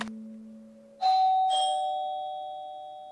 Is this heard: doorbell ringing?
yes